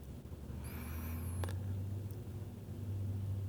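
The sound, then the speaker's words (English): A steady low rumble fills the inside of a car, recorded on a phone, with a faint high squeal early on and a single soft click; no one speaks. “It's just my phone in my car.”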